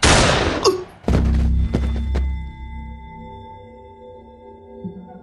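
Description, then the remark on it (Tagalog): A loud gunshot from a gun cracks out after a brief rushing hiss, followed by a few sharp echoing knocks and a long, fading metallic ring. No one speaks. “Naudlot ang sasabihin niya ng isang putok ng baril ang narinig ko.”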